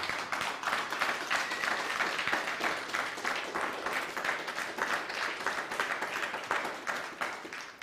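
A crowd claps steadily and loudly, dense overlapping hand claps forming a continuous wash of applause that holds its energy throughout with no voices standing out.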